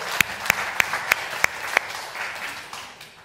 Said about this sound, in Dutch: Maar hier deze dame willen jullie haar hartelijk welkom heten door het applaus. Welkom.